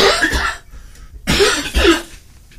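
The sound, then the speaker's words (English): Three harsh coughs from one person: a long, rasping first cough, a short pause, then two quicker coughs in succession, with no talking. “Can I cough now?”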